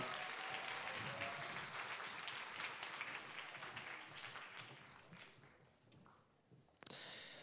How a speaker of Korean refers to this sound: 우리 다시 한번 큰 박수 부탁드리겠습니다.